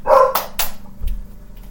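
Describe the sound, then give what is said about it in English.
A dog barks, a short burst of two or three sharp, loud barks in quick succession, followed by a quieter low thump and faint background noise. “That's what my dog's going through.”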